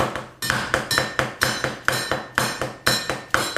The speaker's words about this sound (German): Du haust mal mit dem Messer gegen die. Es wird behindert laut werden.